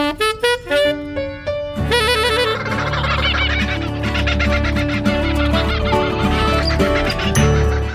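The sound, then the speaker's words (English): Kookaburras laughing: a few loud, choppy hoots open, then a whole group bursts into a dense, raucous chorus of rising cackles that carries on until the end. “But she stopped short midway as all of a sudden the laughter of kookaburras filled the air.”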